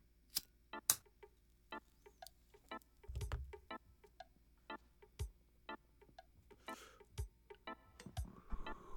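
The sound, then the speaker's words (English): A lighter is flicked again and again to light a joint, a rapid series of sharp clicks with a brief low rush partway through, and no voices. “You know the drill, bros. Lighters out. Let's blaze it.”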